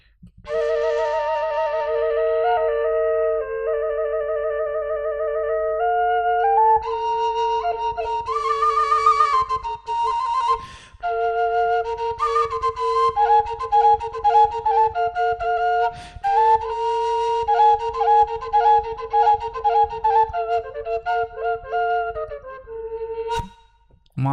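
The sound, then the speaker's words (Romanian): A double-pipe folk flute plays a lively ornamented melody over a steady, unchanging drone note held by one of its two pipes, fairly loud for about twenty-four seconds, with brief breath pauses between phrases. “Și aici o avem în cele două țevi. Da. Așa, ia să auzim. Asta este țeava care ține o singură notă.”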